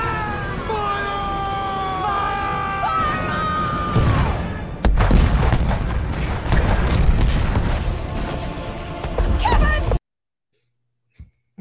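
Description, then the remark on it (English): A cannon firing sound effect: a single loud boom bursts out after a few seconds of wavering, cat-like yowls, followed by noisy rumbling debris that cuts off abruptly. “It's the Kevin Cannon, the latest on the, the Kevin, Kevin at the end situation.”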